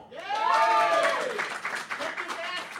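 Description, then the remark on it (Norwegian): An audience bursts into applause for Dumb and Dumber as the best Jim Carrey comedy, steady and fairly loud clapping mixed with excited cheering and voices, building quickly and continuing through the whole short moment. “Alle som syns 'Dum og dummere' er den beste Jim Carrey-komedien, eh, eh, eh, eh, applauder nå.”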